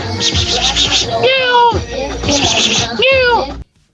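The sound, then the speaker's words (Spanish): Two drawn-out, rising-and-falling cat meows stand out clearly over a busy, hissy background, one in the middle and one near the end, before the sound cuts off abruptly. “Ay, lo del gato se hace.”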